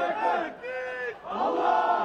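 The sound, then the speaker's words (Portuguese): A crowd at the rubble of a collapsed building cheers and applauds the rescue workers as a 56-year-old man is rescued alive and taken to an ambulance, many voices shouting together in a dense, continuous roar that dips briefly in the middle before swelling back up. “Muita emoção, todo mundo aplaudindo o trabalho dos resgatistas.”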